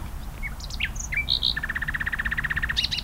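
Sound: common nightingale singing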